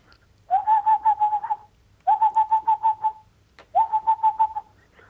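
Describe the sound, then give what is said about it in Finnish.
A person imitates a magpie's chattering call in three rapid, rattling bursts of about a second each, evenly spaced, with brief quiet gaps and no talking, heard over a telephone connection. “Ja harakka.”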